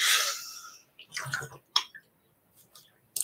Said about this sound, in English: Sorry, in fact, I'm just going to take a quick sip of water.